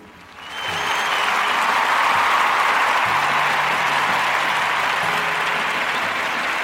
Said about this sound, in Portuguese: nossos nossos aplausos para a senhora por tudo que a senhora desenvolveu.